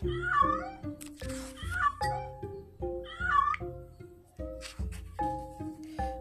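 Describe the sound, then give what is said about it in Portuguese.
Cats meow three times at a steady pace, each call rising and falling, clear, over a light musical accompaniment of plucked, stepping notes; the six cats of the story Léo e a Baleia, who live with Léo and his father by the sea. “Léo morava com o pai e seis gatos na beira do mar.”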